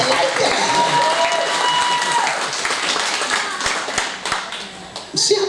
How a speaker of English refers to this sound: Let's hear it for him. I thought you might applaud for him. Come on, somebody.